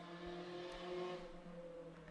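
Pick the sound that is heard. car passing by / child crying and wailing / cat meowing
car passing by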